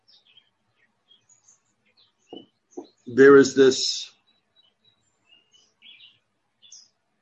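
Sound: bird song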